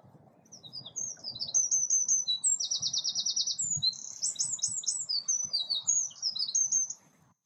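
Birdsong recorded on a balcony, with bright, high chirps and quick trilled phrases running almost continuously, including a rapid buzzy trill, over a low steady rumble of background noise. No one speaks.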